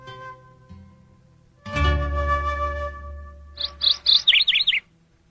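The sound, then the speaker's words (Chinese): Small birds chirp at daybreak in a quick cluster of bright, high-pitched tweets near the end, following a low steady hum and a swelling band of sound at the start. “天亮了耶，小鸟都起床了。”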